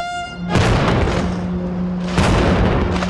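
impact, cannon salute firing

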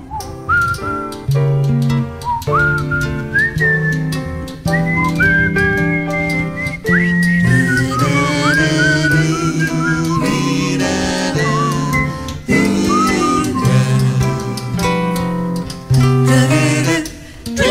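human body sound, person whistling

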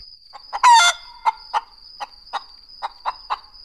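bird, rooster crowing loudly

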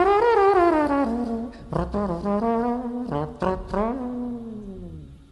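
trombone being played

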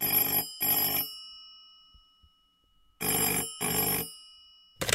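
signal or alarm, telephone ringing

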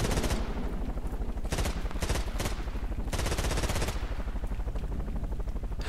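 sound effect, machine gun fire

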